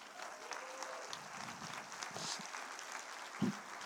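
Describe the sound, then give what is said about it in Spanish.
An audience at a church service in Chile applauds, a steady wash of many hands clapping at moderate volume, with a brief low thump near the end. “Aplauda.”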